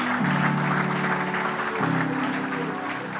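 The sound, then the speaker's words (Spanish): A large crowd claps steadily and continuously for the Lord, a dense wash of applause, while sustained low keyboard or organ chords hold underneath and shift pitch partway through. “Dame un aplauso al Señor.”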